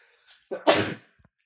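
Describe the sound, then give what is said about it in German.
A single sharp sneeze, with a quick inhale building up before the loud, breathy burst, then quiet. “Gesundheit.”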